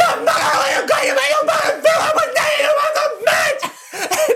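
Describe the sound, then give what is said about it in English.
A voice imitates the people in a car leaning out of its windows and screaming, sustained high-pitched shrieks held for several seconds with brief dips, loud, mixed with laughter-like breaks. “Lean back if you're gonna scream. I'm gonna scream.”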